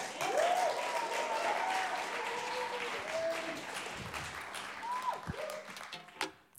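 An audience applauds steadily, dense clapping filling the whole stretch, with a few whoops and cheers rising over it before the noise begins to thin out at the end.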